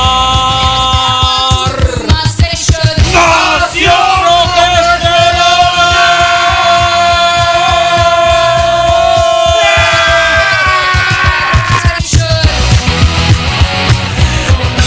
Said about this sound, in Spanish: ¿Te, emociona el gritito?